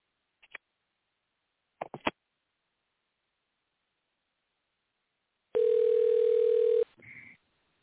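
A couple of faint clicks, then a loud, steady telephone dial tone holds for about a second before cutting off, followed by a brief muffled burst of sound, as a call is placed to reconnect a caller who dropped off.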